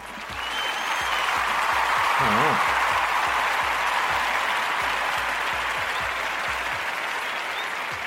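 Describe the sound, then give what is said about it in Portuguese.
A dense round of applause from a crowd, steady and loud for several seconds with a brief whooping voice rising above the clapping early on. “Salva de palmas aí pela, pela inventividade.”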